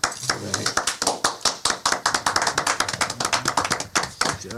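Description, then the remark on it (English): Hands clapping in a quick, steady run of sharp slaps that carries on for several seconds, fairly loud, with faint voices murmuring underneath. “I applaud you for the fine work you've done.”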